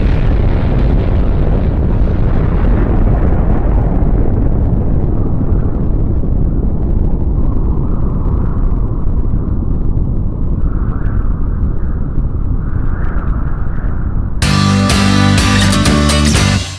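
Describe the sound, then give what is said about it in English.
A loud, continuous roaring rumble of planes seen out a window, mixed with crashing explosions as something falls, heavy and without letup until a short burst of music cuts in at the end. “Are there's planes. Oh my god. Some, something's falling.”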